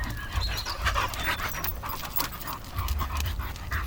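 A dog pants rapidly and steadily, a rhythmic run of breathy huffs with no voices and a faint low rumble beneath.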